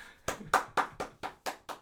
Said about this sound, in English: Golf claps.